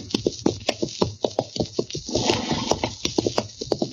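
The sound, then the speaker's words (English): A horse's hooves stomp along a trail of dust and cinders in a steady, rhythmic clopping, with a brief rougher scuffing stretch midway through, as riders head back to Dodge. No one speaks. “Darn horse. Seems he's just bound to stomp all the dust and cinders in my eyes.”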